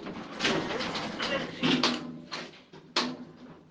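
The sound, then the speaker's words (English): Elevator doors slide with a few rumbling, rattling surges of mechanical noise while a workplace lift hums along going down, moderately loud, with no talking. “I'm just in the lift at work going down across to my sister's, who happens to live right next door, uh, where I'm going to go have lunch.”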